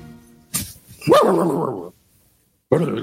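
A dog barks, a short sharp bark followed by a longer, drawn-out yelping bark, then a pause before another bark begins. No talking can be heard.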